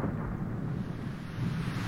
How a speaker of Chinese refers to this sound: 天空很快就出现了乌云，一道闪电划过天空，啊，打雷了！